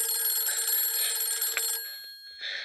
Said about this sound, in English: I gotta get this. I'm out on the garage phone, and the house phone's ringing.